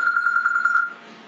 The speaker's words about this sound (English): Oh crap! That's my phone. Let me turn that off.